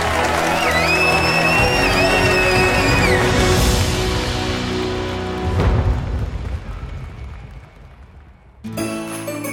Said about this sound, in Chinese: 再次恭喜我们故事小苗探险队成功挑战纳美号知识王争霸赛，成为新一年的纳美号知识王，并获得大奖，掌声鼓励！